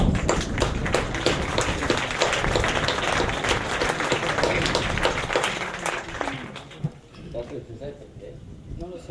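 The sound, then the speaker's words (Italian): Loud, dense audience applause, a steady rush of many hands clapping that fades after several seconds, leaving a few murmuring voices and scattered claps. “Ecco, io adesso farei un grosso applauso per lui.”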